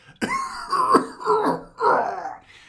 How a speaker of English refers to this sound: it's actually George Lucas coughing up a lung from being sick on set.